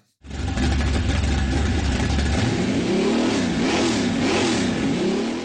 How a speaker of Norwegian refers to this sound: Hører du kjerra mi i bakgrunnen? En 57-modell Chevy 350 fra Halden. En rå V8-er med høy lyd og høyt bensinforbruk.